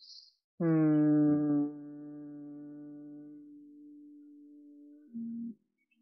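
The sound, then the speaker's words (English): During a guided body-awareness exercise, a single person hums one long, steady low note, sending the hum up the back of the spine; it starts strong and slowly softens over several seconds, followed by a short, brief second hum, with no talking. “And then hum up the back of the spine.”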